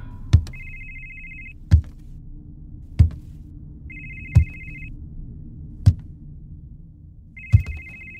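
A cellphone ringtone rings from inside a black bag stored in a cabinet of old belongings in a condo unit, in short, repeating electronic bursts about every three seconds, accompanied by regular sharp thuds and a steady low rumble, with no one speaking.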